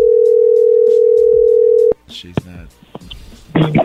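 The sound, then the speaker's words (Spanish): A steady, unbroken telephone tone after a dropped call, at one low-mid pitch, holds for about two seconds, then cuts off abruptly, and the caller begins talking again. “soy yo otra vez de nuevo, perdón, se me cortó la llamada.”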